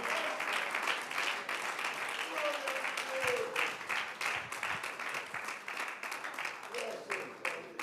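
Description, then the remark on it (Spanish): An audience applauds steadily for several seconds during a religious meditation about God, a dense, loud crackle of many hands clapping, with a few voices calling out beneath it. “Alguien le puede aplaudir en esta hora.”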